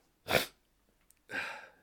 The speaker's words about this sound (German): ich habe noch so einen Husten. Nee, ich auch nicht. Heute ist ein bisschen hustenlastige Folge.